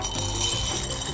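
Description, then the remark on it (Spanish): Small seeds or grains pour steadily into an opened bottle to make a homemade maraca, a dense, continuous patter of tiny clicks and light rattling, fairly loud, with no one speaking. “El segundo paso es introducirle las semillas o granos que tú prefieras.”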